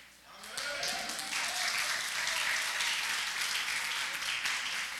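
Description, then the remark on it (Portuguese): An audience breaks into sustained applause to the Lord for the life of the speaker's wife, a dense, steady wash of many hands clapping that swells quickly after a brief quiet start and holds loud for several seconds, with faint voices mixed in. “Aplauda ao Senhor pela vida dela.”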